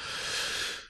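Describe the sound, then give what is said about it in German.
A single sneeze, heard as one breathy, hissing burst of air lasting about a second, holding steady and then trailing off, with no talking. “Gesundheit.”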